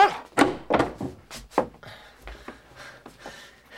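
A door opens with a few heavy wooden thunks and knocks in quick succession, followed by softer rattling and shuffling as it settles.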